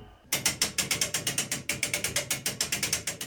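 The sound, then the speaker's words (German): A hand crank turning the winding gear of a fully mechanical church tower clock in the Diocese of Eichstätt, pulling its weights up, giving a steady run of sharp, bright ratchet clicks in quick, even rhythm with a brief pause midway. No one speaks. “Jeden Tag dreht einer der Männer eine Kurbel und zieht so Gewichte nach oben.”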